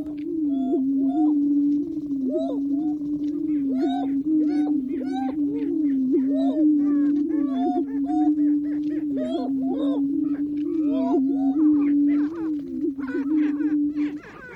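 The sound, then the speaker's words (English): Male prairie chickens display at the Prairie Chicken Lek in the Nebraska National Forest, recorded by nature recordist Lang Elliott, in a steady chorus of low, hollow booming moans that overlap without pause, with sharper cackles and whooping calls breaking in above them throughout. “Nature recordist Lang Elliott got up at the crack of dawn and set up his equipment at the Prairie Chicken Lek in the Nebraska National Forest to record the males strutting their stuff.”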